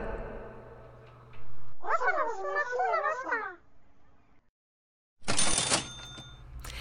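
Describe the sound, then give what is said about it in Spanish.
A cash register rings with a bright ka-ching and a rattling drawer burst, loud, coming after a short silence that follows a stretch of warbling, chirpy sounds. “Venga caja registradora.”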